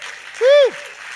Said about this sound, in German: einen riesen Applaus hier bei uns auf der Bühne.